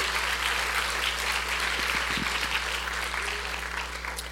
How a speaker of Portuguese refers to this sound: Pode aplaudir o Senhor Jesus. Você está aplaudindo esse Deus maravilhoso.